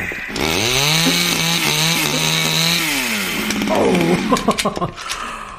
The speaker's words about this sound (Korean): 어? 전기톱이 있네. 텍사스 전기톱 살인 사건 영화 보면 이런 톱 나오던데.